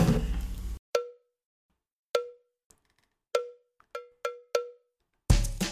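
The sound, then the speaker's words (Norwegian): A short jingle built from bright, ringing cowbell-like strikes, about six clear hits in an uneven rhythm with quieter taps between, framed by dense bursts of sound at the start and end. “Så da tenker jeg at vi bare knekker i gang og hører den deilige jingeren.”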